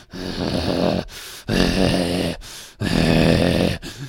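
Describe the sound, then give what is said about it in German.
A human voice imitates an angry goat's snort: three loud, rough, throaty bursts, each about a second long, separated by short pauses, forceful with no words spoken. “Du hörst aus ihrem Maul ein Schnauben”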